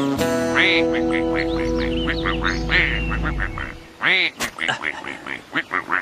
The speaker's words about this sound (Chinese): 啊，如果我没弄错的话，这些鸭子是一种非常稀有的品种，可爱的绿色。